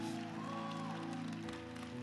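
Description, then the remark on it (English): A church audience claps steadily for about two seconds, giving God a clap of praise, a dense wash of applause over sustained keyboard or organ chords that hold underneath throughout. “Come on, if you believe that, give God a big clap of praise.”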